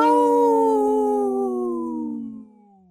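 wolf howling

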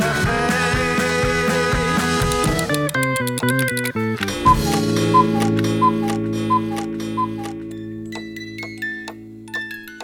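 cuckoo clock ticking

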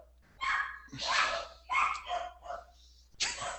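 dogs barking

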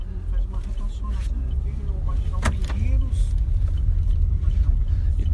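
car interior driving noise

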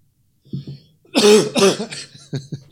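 coughing

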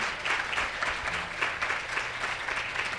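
audience applause

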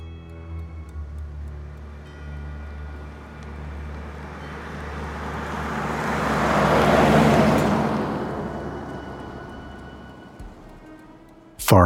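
car driving on road

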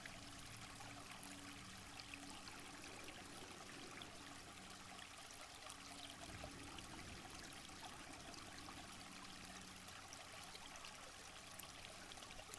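water flowing

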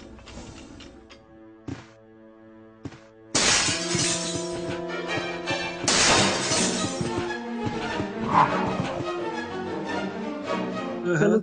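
glass window shattering

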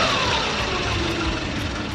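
car passing by

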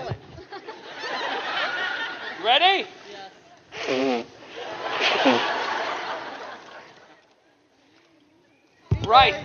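nose blowing

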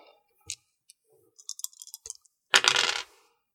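dice rolling and clattering

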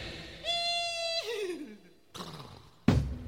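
horse neighing

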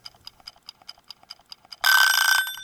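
alarm clock ringing

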